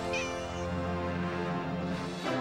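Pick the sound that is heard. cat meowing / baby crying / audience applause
cat meowing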